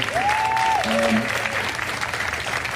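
A crowd in Annapolis applauds Carl Snowden steadily and fairly loudly throughout, with a brief rising whistle or cheer cutting through the clapping near the start.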